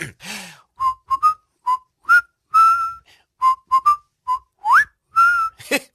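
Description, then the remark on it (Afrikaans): A person whistles a short tune on the children's show Takalani Sesemi, a string of bright, clipped notes with small pauses between them and a couple of rising slides near the end, with no talking. “Neno wil ek met hom leer fluit vandag.”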